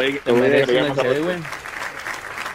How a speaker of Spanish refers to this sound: Venga, aplausos.